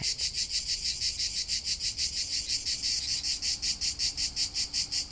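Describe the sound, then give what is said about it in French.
Cicadas in Provence chirp in a loud, steady pulsing drone, the shrill buzz rising and falling in a quick regular rhythm throughout, with no voices. “…”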